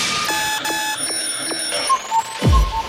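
An alarm clock rings with bright, harmonic electronic tones pulsing in a quick steady rhythm, a high whistling tone rising over it, then a dull thump near the end.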